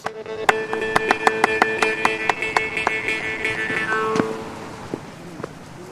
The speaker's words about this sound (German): Vor der Kulisse des Wasserfalls beginnen die Musiker zu klatschen und Münnharpe zu spielen. So wird die Maultrommel auf Norwegisch genannt.